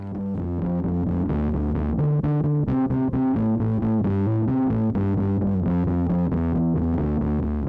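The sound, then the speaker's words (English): A distorted electric bass, plugged into an MS-20 synthesizer for distortion instead of a pedal, plays a steady riff of repeated low notes with a gritty, buzzy synth-filtered tone, loud and continuous with no voices. “I, I, was just trying to come up with a riff or something, and you were like, oh, wait, we should plug it into the MS 20, add some distortion that way instead of, you know, like a pedal.”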